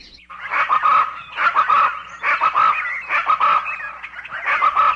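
A puampuam bird of the Amazon rainforest trills: loud chattering calls repeated in about five rapid bursts, each rising and falling, with no one talking.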